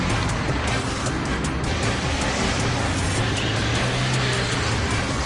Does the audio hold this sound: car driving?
yes